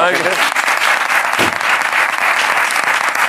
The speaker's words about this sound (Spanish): Venga, chavales. Un aplauso para esos chavales,